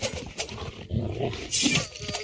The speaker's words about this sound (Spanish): Cuando gruñe el perro es cuando tú sabes que lo tienes que matar, miren. Esa es la señal de que tú tienes que matarlo, miren.